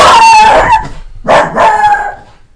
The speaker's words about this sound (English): Excuse us on that one. That would be our guard dog. Well then, that was. But at least we can shut the door. One second. You know that. All right, we're back, and sorry about that somebody knocked on the door. The dog went crazy,